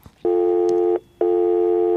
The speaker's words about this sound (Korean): 음, 통화 중 신, 신호음이네요. 그렇죠? 네.